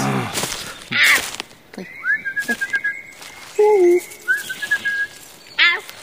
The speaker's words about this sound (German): Jetzt scheint das Einhorn genug zu haben von meinem Gepfeife.